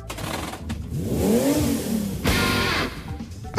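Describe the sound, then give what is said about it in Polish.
A Tesla Model 3 electric car accelerates after overtaking a garbage truck and returning to its own lane, its motor whine rising in pitch and then easing off, followed by a brief loud rush of road and wind noise amid steady traffic. “Hmm, oh, Wyprzedziła śmieciarkę i bezpiecznie wróciła na swój pas.”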